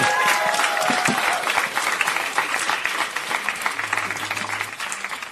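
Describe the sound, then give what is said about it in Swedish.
A crowd applauds steadily to welcome Göran Greider. A dense wash of many hands clapping that stays fairly loud throughout, easing slightly toward the end, with a few faint whistle-like tones early on. “Ge en varm applåd till Göran Greider.”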